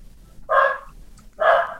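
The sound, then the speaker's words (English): Two sharp, loud dog barks about a second apart, with a quiet low hum underneath and no talking. “oh, I'm so glad it's not my dog barking.”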